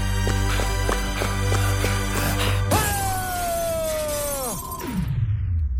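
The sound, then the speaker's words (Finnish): A window is shot out, its glass shattering in one sudden, loud crash over a steady low rumble, followed by a ringing tone that slowly slides downward and fades out. No one speaks. “putoaa letkuvyötäröllään sirpaleiden kanssa, hän ampuu alemman ikkunan, jota kohti hän on heilahtamassa.”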